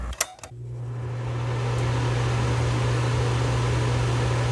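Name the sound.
electric fan whirring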